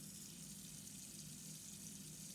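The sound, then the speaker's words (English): Water runs steadily from a tap, a continuous hiss and splash with no breaks, fairly soft and even throughout, with no one speaking. “The water again? Yeah. It's like a waterfall. The way it flows.”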